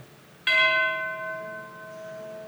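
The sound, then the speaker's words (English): A single church bell strikes sharply and its bright, metallic tone rings out, slowly decaying with a long shimmering hum. No voices are present. “And as he's about to write, legend says that he heard the bells again”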